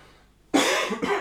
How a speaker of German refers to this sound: Okay. Oh, nee. ich muss kurz husten.